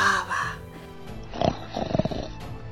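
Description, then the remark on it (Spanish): A voice imitates the loud, rumbling snores of a sleeping monster, two or three rough grunting breaths in a slow rhythm, fairly loud after a brief vocal sound at the start. “Y roncaba.”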